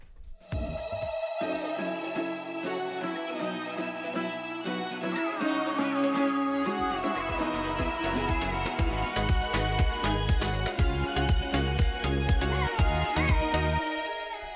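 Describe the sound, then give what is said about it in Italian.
A pop song by a sister duo plays loud, opening with bright synth chords before a steady, driving beat kicks in partway through and carries on to the end, with no talking over it. “E adesso sai cosa facciamo? …. Ce li ascoltiamo, vai.”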